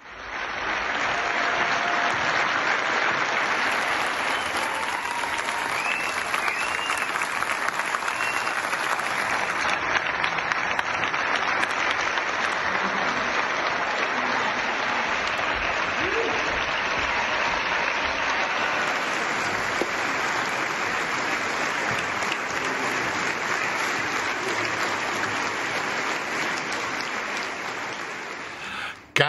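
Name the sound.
theater audience applause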